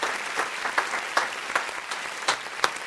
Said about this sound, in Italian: Applausi in studio, ovviamente